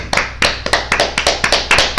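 Loud, steady clapping on cue after a count of three at a Shabbat dinner: roughly ten sharp, crisp claps in an even, quick rhythm, with no voices over them.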